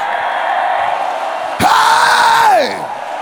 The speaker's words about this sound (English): And as you clap on and shout, and shout and shout. Can you rise up and give God your loudest scream in the house?